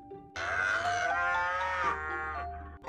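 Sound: cow mooing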